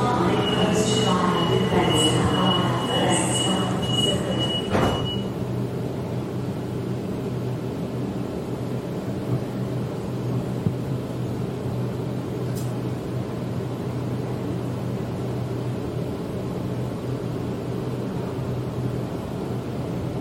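Steady low rumble heard inside a moving Sydney suburban train carriage, with a high metallic wheel squeal and clatter in the first five seconds before settling into a constant droning hum with a faint click midway.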